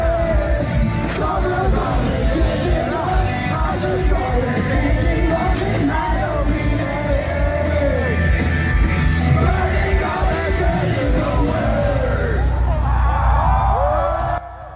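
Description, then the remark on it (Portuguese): A concert crowd yells and whoops continuously, a dense, loud wall of overlapping voices with rising shouts and cheers throughout, over a low rumbling din. “Esse vídeo aqui não expressa 10% do que foi o show.”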